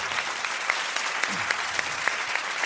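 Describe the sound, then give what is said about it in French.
An audience at an evening event applauds a women's empowerment programme steadily, a dense wash of many hands clapping at an even level with a few sharper claps standing out, no voices rising above it. “J'ai réussi à faire applaudir le programme moi aussi.”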